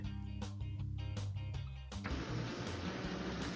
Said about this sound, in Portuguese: É, vocês estão escutando barulho ainda do ventilador muito forte no né, microfone? Não, não, agora tá, tá consideravelmente melhor.